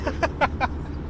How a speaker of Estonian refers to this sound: aga me sõidame Rakvere poole